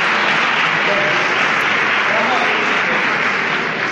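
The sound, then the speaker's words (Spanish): A large crowd at a procession applauds steadily as the front of the throne of Jesús comes into view, a dense, continuous wash of clapping at full volume that holds without pause for the whole stretch, with indistinct voices mixed into the roar. “y la gente que empieza ya a vislumbrar al menos la, la parte inicial de- del trono de Jesús y, y ya pues estalla- estallan en, en aplausos.”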